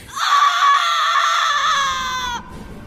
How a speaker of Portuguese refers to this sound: Até eu ouvir o último grito.